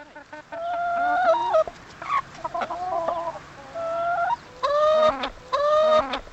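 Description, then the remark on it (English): Several free-range hens in a field next to Huber's barn cluck and murmur in a steady, relaxed chorus, with a few longer rising calls standing out near the end. “In a field next to his barn, Huber also keeps free range hens. They look and sound a lot more at ease.”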